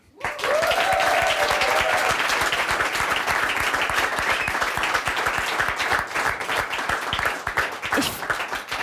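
Sustained applause from a crowd, a dense wash of many hands clapping at a steady loud level for several seconds, with a brief whistle-like tone early on and no talking.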